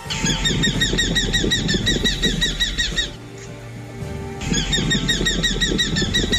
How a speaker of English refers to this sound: The bat falcon, Falco rufigularis. Today's Talking Birds featured feathered friend.